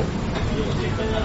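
A steady, low whooshing drone from a restaurant exhaust duct fan at a yakiniku (grilled meat) restaurant runs without a break, loud, with faint indistinct voices blending into the background.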